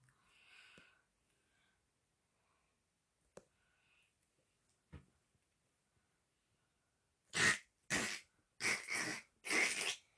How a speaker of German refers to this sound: Ich mach nichts, Digga. Ja, du hast ja nichts gemacht, du hast nur gehustet. Aha, das ist meine Husten, Digga.